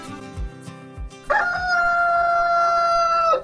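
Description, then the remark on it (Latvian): A rooster lets out one long, loud crow, held at a steady pitch for about two seconds, after a few soft, low thumps. No one speaks. The crow introduced a Latvian Radio morning segment for rural people. “Toreiz tie bija dresēti putni, kurus skoloja vecerīgā dzīvojošs pulksteņmeistars Kuzņecovs, bet arī nesenā pagātnē, kad ikrītu pulksteni 6.45 skanēja Māras Varikas veidotais sižets lauku ļaudīm, To ievadīja gaļa dziesma.”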